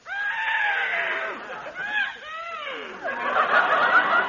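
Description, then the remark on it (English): A small horse whinnies loudly, a long quavering neigh with wavering, falling pitch that breaks briefly in the middle before rising into a shrill, shaky finish. “There's that daffy guy's horse, Numskull. Oh, ah, what a cute little horse.”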